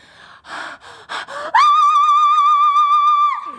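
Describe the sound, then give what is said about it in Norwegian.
Several quick, breathy gasps, then a loud, theatrical vocal diva moan held on one high note with wavering vibrato for nearly two seconds before it drops away. A single voice, with no speech. “divastønn vi går for et divastønn.”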